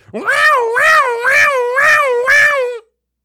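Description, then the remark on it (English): A single voice imitates an emergency siren, a loud, continuous wail that swoops up and down in pitch about five times over nearly three seconds, then stops abruptly. “Do I have an emergency sound? I don't really have it. I've like. Uh... I'll do one.”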